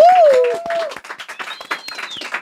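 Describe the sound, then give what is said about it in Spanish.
A crowd applauds with dense, steady clapping for a couple of seconds, opening with a short vocal whoop and later joined by a faint high whistle. “Entonces, un aplauso otra vez.”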